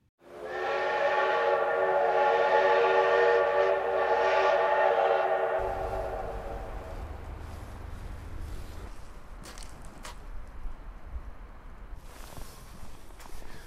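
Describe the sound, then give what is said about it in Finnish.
A passenger train's whistle blows loud and sustained for several seconds, then gives way to the low rumble and clatter of the train rolling in at Lieksa under a low sun, with scattered footsteps and station noise. “Junamatka Lieksaan on takana.”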